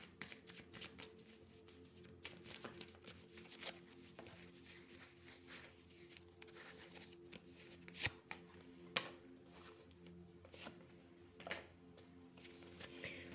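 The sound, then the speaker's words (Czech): Tarot cards being shuffled and laid out, a steady papery riffling with sharp snaps and flicks scattered through, fairly quiet over a low steady background hum, no talking. “Já ještě hodím na to další karty.”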